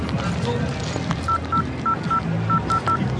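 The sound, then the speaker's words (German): A rapid series of short electronic keypad beeps, about seven evenly spaced tones, as a phone number is dialed on a mobile, with low background noise underneath. “Ich rufe dich jetzt an, dann hast du ja meine Nummer.”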